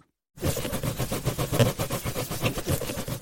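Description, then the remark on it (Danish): Rapid, rhythmic squeaking and rubbing of a balloon against hair, fairly loud, starting after a brief silence and continuing steadily with no one talking. “er det en ballon, der bliver knuppet mod håret?”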